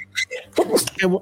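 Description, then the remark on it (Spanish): A person sneezes once, fairly loud, a sharp breathy burst set among brief voiced sounds. “salud.”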